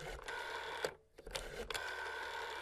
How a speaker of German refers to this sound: In Dumbledores Büro klingelte es. Und Dumbledore ging an ein, seines Erachtens nach, Hightech, ein Kilo schweres 80er-Jahre-Handy mit Antenne.